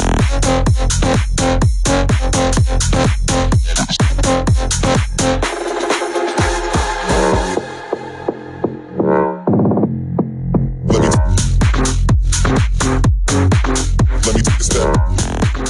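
A loud, upbeat electronic music track with a driving, steady beat; midway the percussion drops out into sustained synth tones before the full beat kicks back in. No one speaks.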